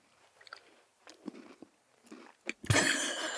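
Loud, crunchy chewing of a Cremis snack: several sharp bites and crunches in an uneven rhythm, building to a dense burst of grinding crunch at the end. No talking.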